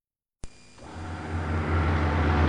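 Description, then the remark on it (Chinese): Two police cars brake to a stop outside a main gate, tires skidding against the road after a sudden sharp start, a broad rough hiss over a low engine rumble that builds steadily louder for about two seconds. No voices. “随着轮胎和地面摩擦的刹车声，两辆警车在大门外停稳。”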